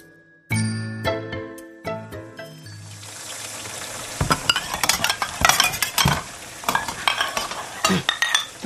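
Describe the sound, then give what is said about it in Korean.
Dishes and utensils clink and tinkle sharply several times as someone washes the dishes, then a steady rush of running water or scrubbing fills the rest with scattered clatters, with no talking. “설거지해요.”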